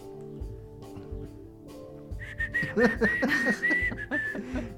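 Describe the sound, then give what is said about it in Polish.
A loud whistle held on one steady high pitch for about two seconds, blown right into the microphone, with soft chuckling and murmuring underneath. “Szczególnie, że gwizdanie do mikrofonu to jest zawsze dobry pomysł.”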